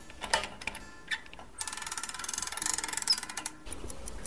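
Many clocks ticking together in a clock collector's workshop in Tamsui, Taipei, sharp metallic clicks layered in overlapping rhythms, sparse at first and then a dense, busy chatter of ticks from about the middle on, with no voices.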